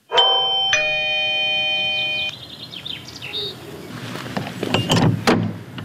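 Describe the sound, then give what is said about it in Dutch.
A doorbell at the large wooden gate of a square farmhouse by a churchyard sounds a clear two-note ding-dong chime, loud, ringing out for about two seconds, then birds chirp outdoors over faint rustling and ambient noise. “Op goed geluk bel ik aan.”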